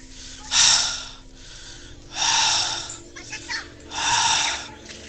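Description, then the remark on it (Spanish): A voice imitates heavy breathing: three loud, breathy exhalations spaced roughly evenly, each a rough airy rush, with softer breath sounds between them. “Automáticamente pasaron 5 o 10 minutos, me volví a dormir, por ahí siento una respiración literal, lo que le hablo,”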